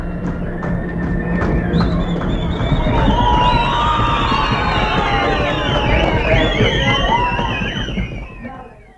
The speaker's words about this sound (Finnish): Jalkojen tömistyksin elää nuori yleisö mukana, kun kyseistä filmiä lauantai-iltana esitetään helsinkiläisessä elokuvateatterissa – ja tietysti parhaiden kohtien jälkeen puhjataan huimiin vihellyksiin ja muihin suosionosoitushuutoihin.